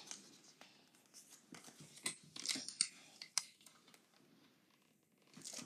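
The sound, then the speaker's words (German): Adhesive tape being pulled and torn, a run of crackly, sticky ripping bursts with several sharper snaps in the middle, fairly quiet overall with no one talking. “oh, ich hasse dieses Klickband.”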